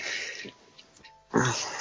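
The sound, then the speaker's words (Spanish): A breathy yawn: a long airy exhale that fades into quiet, then a second louder drawn-out breath that swells and ends with a brief squeak, with no talking. “A ver, si es que la, habéis pillado en mitad de un bostezo.”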